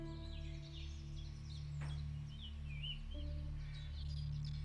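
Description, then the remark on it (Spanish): Scattered, faint bird chirps and short tweets in a forest, over a steady, low droning hum that runs continuously beneath them. “Observas los rayos del sol, esos árboles, esos pájaros, esa hojarasca que pisas.”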